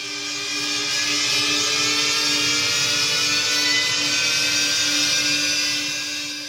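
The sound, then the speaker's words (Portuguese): A single sustained D note from an electric cello and violin, held steadily for several seconds as a loud, buzzing, harmonically rich drone with no voices. “O que ouvimos é a nota musical Ré, que vem de um violoncelo eletrônico que timbra com um violino também elétrico.”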